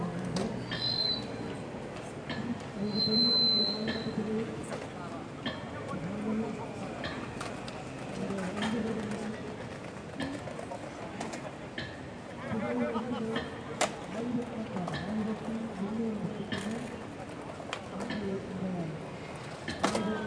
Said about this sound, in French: Une minute de silence. La veille, je me demandais si c'était possible de trouver le silence place de la République. Aujourd'hui, j'ai ma réponse. Le silence ici, il n'est pas moins bruyant que ça.